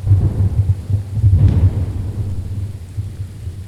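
Deep, rolling thunder rumbles heavily through steady hard rain, the low growl swelling loud early on before easing into a sustained, softer roar of downpour. No voices.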